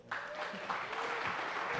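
A crowd at a service applauds steadily for a reader coming up to read the passage, a dense wash of clapping hands that starts abruptly and holds at an even, moderate level throughout, with faint vocal noise mixed in.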